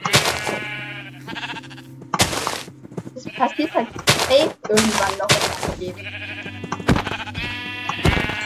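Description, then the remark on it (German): Repeated sheep bleats from a video game, fairly loud, mixed with sharp percussive hits as the player strikes an Iron Golem next to a sheep, while a man talks over them. “Ich habe immer so an dass den Iron Golem schlag, wenn daneben ein Schaf.”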